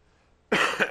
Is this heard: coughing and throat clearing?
yes